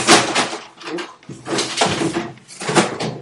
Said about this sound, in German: Ups. Das war eine Katze, die gefallen ist. Geht's dir gut, Kleiner? Jupp, kein Problem.